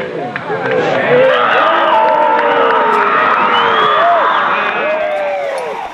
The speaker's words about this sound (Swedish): Och ännu mer applåder.